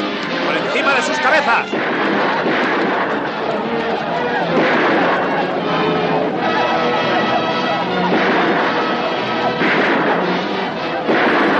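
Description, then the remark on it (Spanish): Loud, dense gunfire crackles and booms through a busy, chaotic soundtrack, with repeated shots blending into a continuous roar. Voices can be heard mixed in underneath. “Los indios, vestidos con camisas rojas, se detienen al escuchar los disparos.”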